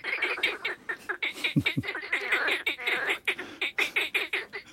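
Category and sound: animal, marsh frogs calling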